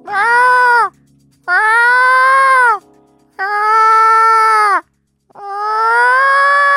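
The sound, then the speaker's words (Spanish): A person imitates their orange cat's meow with four loud, drawn-out, nasal wails, each about a second long. Each holds a steady pitch before dipping at the end, with short pauses between. “Mi gato, si quiere imito perfecto a mi gato, me sale muy bien. Porque tiene varios maullidos, yo ya los conozco todos.”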